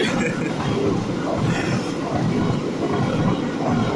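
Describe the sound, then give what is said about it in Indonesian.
A PT KAI train rumbles past, a loud, steady roar of wheels and carriages that fills the whole few seconds without letting up. “Ada kereta lewat, Bos.”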